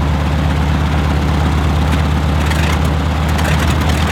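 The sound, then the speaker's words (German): The second of the three engines of a German Ju 52 aircraft starting up with a starter, a loud, continuous low rumbling drone with steady throbbing pulses and a few brief rattles, with no one speaking. “Das ist der zweite.”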